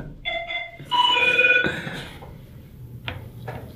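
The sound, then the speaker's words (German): A phone ringtone from the TV series Pastewka, of bright, gong-like chimes: two short tonal strikes followed by a louder, sustained ringing chord that decays, then a couple of faint clicks. “Wow, da geht ein Gong los.”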